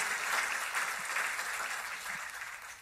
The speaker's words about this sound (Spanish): ¿Cuántos aplauden el amor y la misericordia de Cristo Jesús?